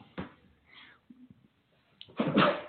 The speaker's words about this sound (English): Oh bless you, … just sneezed.